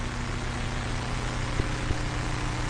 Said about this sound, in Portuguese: Sabe o que é isso? São os aviões que estão com você no mesmo lugar. Alguns metros de distância um do outro.